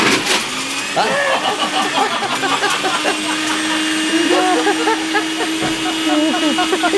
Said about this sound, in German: Und dann kommt das Ganze auf den Mixer drauf.